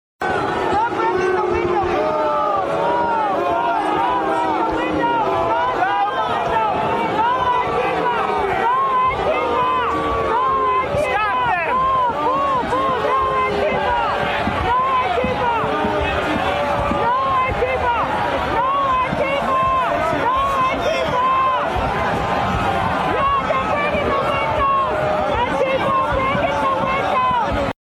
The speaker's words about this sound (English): booing all these Trump supporters, booing, yelling, "Don't break the windows! No Antifa! No Antifa!" You hear the crowd.